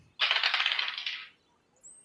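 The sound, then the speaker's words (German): Dice clatter and tumble across a hard tabletop for about a second, a dense rattling burst that fades out, followed by a faint tick; a player rolling for a survival check in a tabletop role-playing game. “Es, jeder kann so. einmal würfeln.”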